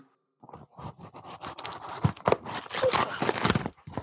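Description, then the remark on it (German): Packing tape being peeled off a parcel, a crackly ripping and scraping that comes in uneven bursts over a few seconds, with no one talking. “Außer man äh, nimmt richtig äh, so in Nahaufnahmen, gibt es das auch bei Audio, nimmt man so das Geräusch auf, wie das Paketband abgemacht wird oder so.”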